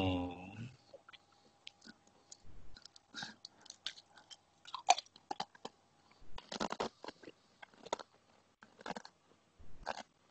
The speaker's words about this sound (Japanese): めっちゃおせんべいの音聞こえる。